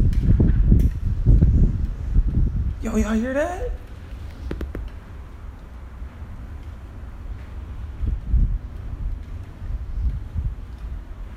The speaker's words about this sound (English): Like dude, it's so windy right now. I know y'all hear that.